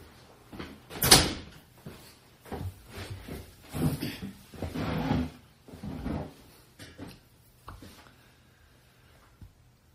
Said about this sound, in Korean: 어, 잠깐만요. 문이 안 닫지.